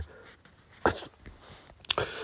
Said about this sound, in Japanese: 今ちょっとくしゃみ出たんで一旦ポーズしましたけど